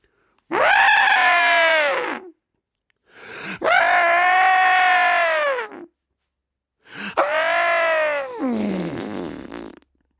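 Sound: elephants trumpeting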